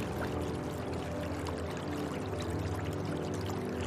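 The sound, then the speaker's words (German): A stream burbles and splashes steadily at moderate volume, a continuous babbling flow with small bright trickles and no voices. “Er begleitet uns auf unserer Reise und plätschert leise vor sich hin.”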